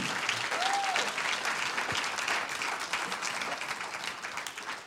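An audience applauds the Lord steadily, dense clapping filling the space for several seconds with a brief whistle or cheer near the start and faint voices mixed into the crowd noise.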